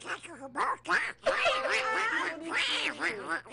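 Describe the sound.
A person imitates Donald Duck, producing a continuous stream of raspy, nasal quacking vocalizations for several seconds, loud, with a steady low hum underneath.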